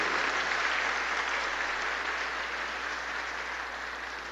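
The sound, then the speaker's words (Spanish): An audience at the Santa Rosa de Lima parish applauding visiting pilgrims: a dense, steady wash of many hands clapping, sustained throughout and tapering slightly toward the end, with no speech over it. “Démosles un aplauso también.”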